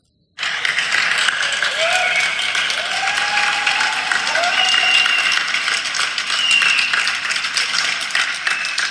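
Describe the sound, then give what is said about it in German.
A whole street of people in Cologne, Germany, clapping together from their windows: dense, steady applause that starts abruptly and continues without pause, with a few faint high whistle-like tones threaded through the clapping. “Also da klatscht die ganze Straße.”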